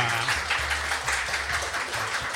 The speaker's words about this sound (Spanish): Y, acá irían los aplausos. Así que adelante, les toca a ustedes.